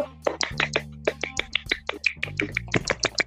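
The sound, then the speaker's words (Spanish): A short burst of applause: a few people clapping quickly and unevenly, sharp bright claps piling over one another, with a low steady droning tone running underneath. “Un aplauso.”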